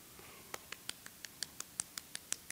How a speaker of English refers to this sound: Golf clap. I'll give you a golf clap on that one.